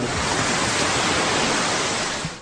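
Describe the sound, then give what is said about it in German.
A dense, steady wash of audience applause, many hands clapping at once into a continuous hiss-like roar, applauding the sale of all 1,250 raffle tickets for social charities, holding at an even loudness before easing off at the very end. “Für dafür einen kräftigen Applaus eurerseits.”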